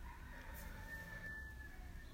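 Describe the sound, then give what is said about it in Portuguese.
A rooster crows, one long drawn-out call, faint and thin over a steady low background rumble, with no one talking. “O galo cantando aí, não sei se dá pra ouvir, tomara que sim.”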